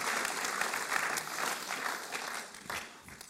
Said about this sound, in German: Ich darf gerne so einen Applaus geben, wenn so Wahrheiten kommen, die so stark Wow, genial.